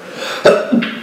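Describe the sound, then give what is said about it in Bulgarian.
A single sharp sneeze bursts out abruptly, loud and explosive, followed a moment later by a shorter, softer breathy sound as the person recovers. “На здраве.”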